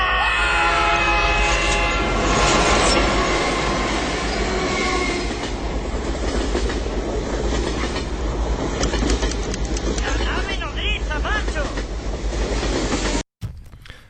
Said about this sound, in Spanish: No me diga que va a venir el trenecito. ¡Pi, pi, pi!